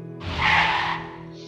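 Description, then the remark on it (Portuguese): A vehicle's brakes screech sharply, a loud harsh squeal that swells quickly and then fades over about a second, with a low engine rumble underneath and no voices. “E antes que eu pudesse segurar ela, eu ouvi aquela freada.”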